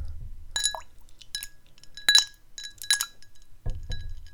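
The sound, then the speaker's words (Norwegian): Several ice cubes are dropped by hand into a glass of water held right beside a microphone, clinking and tumbling with a few bright, ringing taps spaced irregularly over a few seconds, with a low rumble of handling underneath. “Jeg slapp nettopp noen isbiter ned i vann.”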